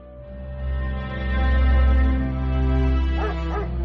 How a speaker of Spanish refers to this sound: Los ladridos tirantes le recordaron que no podía aún descansar.